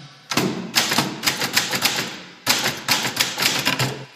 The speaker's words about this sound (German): Oder hier, die Schreibmaschine.